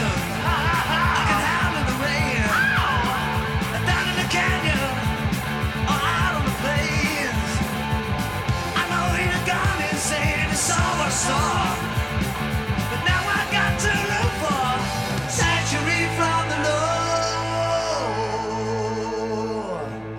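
A raw heavy metal studio demo recording by a band with two guitarists, a drummer, a bassist and a singer: loud distorted guitars, pounding drums and shouted vocals, driving steadily before closing on a long, ringing sustained chord.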